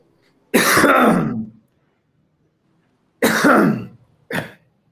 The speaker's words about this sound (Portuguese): Tá feia essa tosse